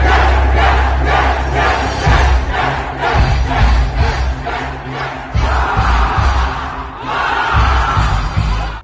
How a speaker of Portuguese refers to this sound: Gritar esses gritos de guerra do coach.